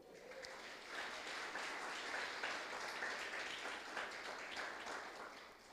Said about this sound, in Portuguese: Você pode dar uma oferta de palmas ao Senhor?